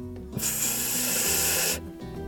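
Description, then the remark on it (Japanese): A single sustained breathy hiss of a voiceless English F sound, made with the upper teeth touching the inside of the lower lip, steady for about a second and a half, with quiet low hum before and after. “下唇をちょっとビロンって出してその内側のまあ女性だったらリップを塗らないあたりって言ったら分かりやすいですよっていうことでそのあたりに、え上の歯をくっつけて F だったら「フっ”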